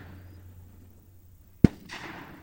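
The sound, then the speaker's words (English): A single sharp shotgun blast from hunters at a dove hunt on public land cracks out of a quiet, low hum, followed by a short rushing, hissy tail as it fades away. No one speaks. “I think that's what they were shooting at.”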